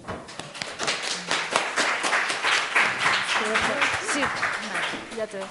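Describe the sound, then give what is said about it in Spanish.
An audience at a talk applauds steadily for several seconds to welcome the speaker, a dense crackle of many hands clapping at once, with a few voices calling out underneath toward the end. “Muchas gracias por venir y un aplauso.”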